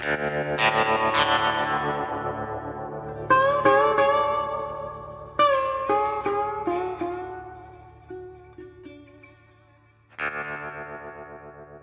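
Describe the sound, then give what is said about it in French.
A short instrumental segment jingle of bright, processed electronic tones with chorus and distortion, playing in several punchy phrases with strong attacks and ringing decays, loud and up front with no voices. “Eh bien, on écoute le, le, quoi, le sonal et puis on se reparle du conseil des voyages après.”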